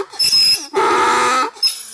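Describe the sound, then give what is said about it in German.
A donkey brays loudly in a forest between Bräuningshof and Marloffstein during a donkey hike, at a narrow wooden bridge over a swampy meadow: a harsh wheezing inhale followed by a long honking bray and another gasping breath, with no talking. “Ein Eselruf durchdringt den Wald zwischen Bräuningshof und Marloffstein.”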